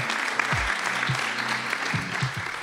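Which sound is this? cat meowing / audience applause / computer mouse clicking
audience applause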